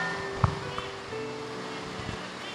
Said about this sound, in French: La pluie là ne nous arrange pas.